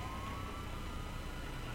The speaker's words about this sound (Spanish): O sea, veo decenas de autos de civiles estacionados, otros esperando la luz del SIGA y de pronto policías a pie y de pronto patrullas en contra, sirenas.